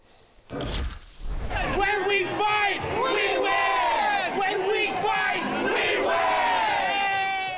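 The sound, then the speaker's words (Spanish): A crowd chants the celebratory rallying cry "Cuando luchamos, ganamos" (When we fight, we win) in unison, celebrating the end of the Hollywood actors' strike in California; loud and sustained, with many voices shouting rhythmic phrases after a brief sharp burst at the start. “Con este grito muchos celebraban una de las noticias más esperadas en los últimos meses en California.”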